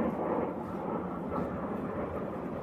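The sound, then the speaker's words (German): A steady, broad roar of an airplane flying overhead, heavy in the low range and holding at an even level throughout, with no voices over it. “Warte kurz, wir sind Flugzeuge, also”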